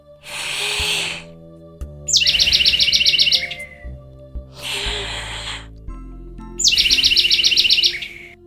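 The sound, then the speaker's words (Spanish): A little bird gives two bursts of rapid, high-pitched chirping trills, each following a breathy whooshing sound, with soft music playing underneath. “El pajarito obedeció.”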